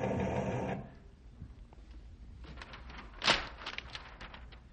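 A teletype machine printing a weather report clatters in rapid mechanical bursts: a dense whir at first, then a quieter run of sharp, irregular taps with one louder clack partway through. No one speaks.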